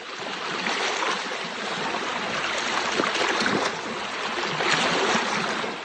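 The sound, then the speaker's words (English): Gentle waves lap steadily against the shore of Issyk-Kul, a large lake in northern Kyrgyzstan, on a bright summer afternoon. A continuous wash of splashing water with soft swells rising and falling, no voices present. “On a bright summer afternoon, waves lap the shore of Issyk-Kul, a large lake in northern Kyrgyzstan.”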